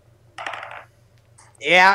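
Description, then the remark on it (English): Dice, re-rolled for advantage, rattle and clatter across a table in a quick burst, followed by a couple of faint ticks as they settle, then a short voiced laugh or exclamation at the end. “Given the fact that he has advantage, I'll roll that again.”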